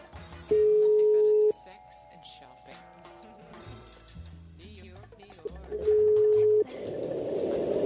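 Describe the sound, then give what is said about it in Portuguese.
A telephone ringback tone from an outgoing phone call sounds twice, each a steady one-second beep about five seconds apart, loud and clear, with faint talking and background noise in between. “Então, pera aí, tá, ó, tá ligando, tá ligando, tá chamando, tá chamando.”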